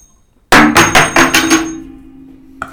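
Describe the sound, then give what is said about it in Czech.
A small metal coin, tossed in a coin toss, falls off a table onto a hard floor and bounces several times in quickening succession, ringing with a sustained metallic tone that fades out, followed by one faint final tap. “Spadlo to ze stolu, já to hodím.”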